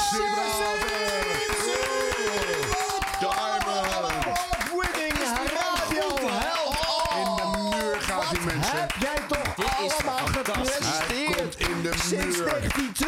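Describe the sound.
A crowd claps steadily and loudly throughout, giving its biggest applause ever for an award winner, with voices cheering and calling out over the applause for the whole stretch.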